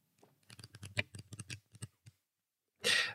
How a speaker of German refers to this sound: Ich würde, äh, obwohl das Thema so heavy war, trotzdem blättern, um weiterzukommen, oder?